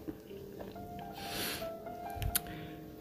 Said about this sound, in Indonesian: sorry ada suara itu motor dari pembalap